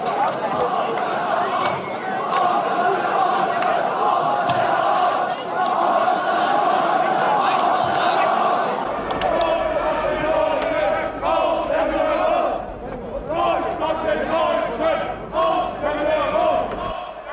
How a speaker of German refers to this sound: Von dort wird ihm zugejubelt. Ich krieg da heute noch eine Gänsehaut. Die jetzt folgenden Sekunden tun beim Hören weh, aber sie gehören zur deutschen Geschichte.